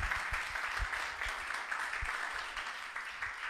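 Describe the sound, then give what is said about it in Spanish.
An audience applauds Christ steadily, a dense wash of many hands clapping at once with scattered sharper claps standing out, holding an even level throughout without any talking over it. “Aplaudo a Cristo por las esposas que nos dan ánimo.”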